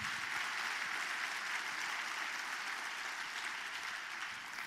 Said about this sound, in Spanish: Dale un fuerte aplauso al Señor. Vamos, vamos, vamos.